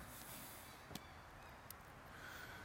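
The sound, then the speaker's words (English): Faint honking from birds outdoors in the morning, a few scattered calls rising over a steady hiss of ambient noise, with a couple of sharp brief clicks in between and no talking. “This is what I wake up to every day.”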